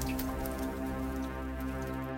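Steady rain falls continuously, a dense patter of drops with scattered brighter taps over a low, constant rumble; even throughout, with no voices.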